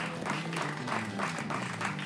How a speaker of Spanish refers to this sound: No sé si ya lo hemos mencionado lo suficiente, pero un aplauso para el Hub Escalante, primera vez acá, estamos desvirgándonos.